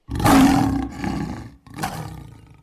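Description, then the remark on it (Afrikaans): A lion, Zibi, roars loudly, a deep rumbling bellow that fades, then a second shorter roar follows after a brief pause. “Hulle het Zibi hoor brul en dit het hulle van vooraf bang gemaak vir hom.”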